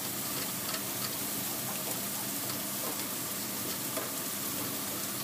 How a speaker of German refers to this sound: Die Bohnen brennen übrigens an.